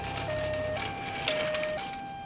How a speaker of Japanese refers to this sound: まずは救急車を呼んでくださいははい今すぐ電話しますするとすぐに救急車がやってきました